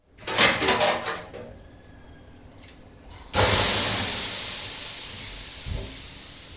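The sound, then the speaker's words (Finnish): Sauna sounds: a few wooden knocks and creaks, then a sudden loud hiss of steam as water hits the stove, slowly fading, with a faint clunk near the end. No one speaks. “Joku oli omassa kodissaan tai omalla mökillään, joku toinen oli ehkä kaverin saunassa ja joku kuvitteli kenties ihan uuden saunan”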